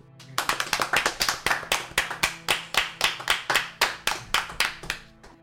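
Steady hand clapping, sounding like one person or a small handful applauding, with crisp individual claps at a quick, even pace for several seconds and no talking; applause welcoming a guest.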